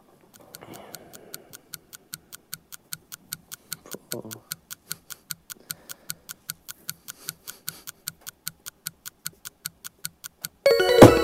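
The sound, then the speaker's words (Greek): A clock used as a game timer ticks steadily, about three ticks per second, with soft voices and rustling underneath, ending in a sudden loud burst of noise. “Εγώ σα λέω το ρολόι.”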